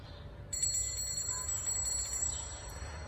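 Small bells jingle in front of the listener during a stereo recording channel test, a bright, shimmering cluster that begins suddenly and rings on steadily over a low background rumble, with no voices.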